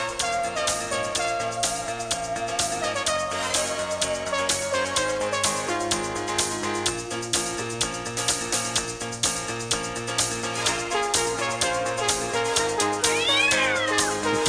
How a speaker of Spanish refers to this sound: a uno le molestará que yo le meta un gato a la, música de pronto.